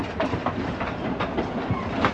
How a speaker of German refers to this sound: Durch ein kleines Tal schlängelt sich, zuweilen schrill aufkreischend, hin und wieder in tiefen Schluchten verschwindend, der Überlandzug nach Mandrak.